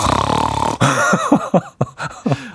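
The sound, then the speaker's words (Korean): A voice pretending to be asleep imitates snoring with one long, rough, rasping snore lasting nearly a second. Several short, choppy voiced bursts like chuckling follow. “갑자기 코를 골아.”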